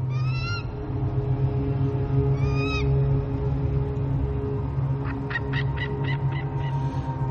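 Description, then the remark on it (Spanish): An eagle flying over a group of people screeches twice from high above, each cry a drawn-out piercing call, followed by a quick burst of short chattering yelps, all over a steady low rumble of open-air ambience. “Un águila vuela sobre ellos.”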